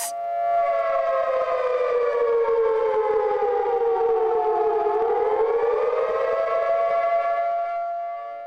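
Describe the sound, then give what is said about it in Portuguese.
A loud civil-defense siren wails steadily outside the COP26 conference amid protests, its tone dipping and rising slowly in one long sustained blast, with no voices heard. “Do lado de fora, protestos e uma sirene lembram que para evitar o pior é preciso fazer mais.”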